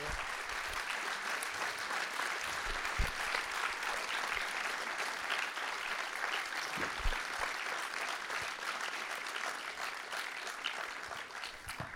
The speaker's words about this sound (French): Je me demande d'accueillir et d'applaudir eric Rochant.